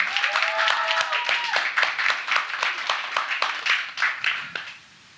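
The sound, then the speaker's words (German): Sustained audience applause for the regional leader (Landesleiter), a dense wash of many hands clapping steadily for about five seconds before fading out, with a few brief tonal voice-like sounds mixed in at the start. “vielen Dank und Applaus für unseren Landesleiter.”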